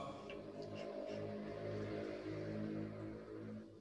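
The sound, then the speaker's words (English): A motor engine drones steadily with a buzzing, harmonic hum, fairly loud, as a motorbike goes by and fades slightly at the end. No one speaks. “Oh, was that car? the motorbike.”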